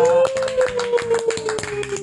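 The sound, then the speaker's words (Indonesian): A quick, uneven run of hand claps, about eight sharp slaps over two seconds, layered over a steady sustained tone, with no talking. “nggak kena gue tepuk tangan anjing.”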